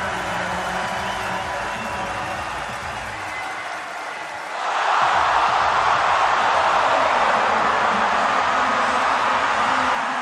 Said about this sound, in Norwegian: Men så skjer det noe når han har gått to tredjedeler av sin 10 000 meter. Så skjer det noe helt på slutten. Bare ta en kikk på det her. Hør på publikum.